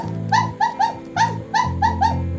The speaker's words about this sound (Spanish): Aquí mi perra Roberta dice que... ¿Qué dices Roberta?